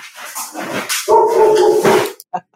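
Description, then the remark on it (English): A dog barks: a drawn-out, whining bark that holds for about a second, preceded by rougher yelps and followed by a few short, clipped sounds. The female dog has just come home and barks when she gets insecure. “That's the woof woof.”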